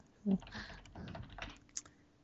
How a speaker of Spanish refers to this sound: He oído por ahí un teclado.